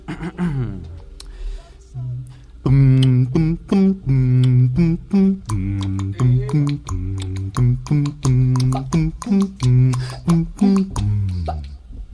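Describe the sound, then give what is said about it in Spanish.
A deep male voice, the baritone and bass singer of a swing vocal group, imitates a bass line, singing a steady run of short, rhythmic low syllables, with a brief lead-in before the pattern settles into a bouncing groove. “yo en Radio Swing hago la voz del barítono y el bajo también”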